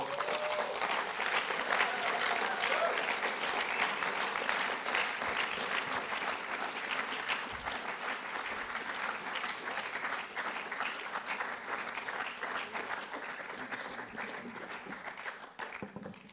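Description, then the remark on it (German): An audience applauds a man coming onto a stage as a guest, steadily for about sixteen seconds, a dense wash of many hands clapping at an even, sustained level that tapers only slightly toward the end. “Darum, für die Scheuchheit ein bisschen zu vertreiben, geben wir ihm einen herzlichen Applaus.”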